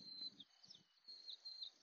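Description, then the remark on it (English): Faint, high-pitched bird chirps repeat throughout, a steady scatter of tweets in the background over low rumbling wind, outdoors on a day with low cloud cover and a decent wind blowing. “I'm sure y'all can hear that along with all the birds in the background.”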